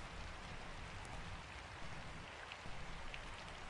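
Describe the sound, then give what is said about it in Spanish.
Steady rain falls continuously, a dense hiss of drops pattering on a surface with a few brighter drips standing out, even in loudness throughout, with no voices. “Antes, sobre Bagdad, sobre Buenos Aires, llueve sobre el mundo entero.”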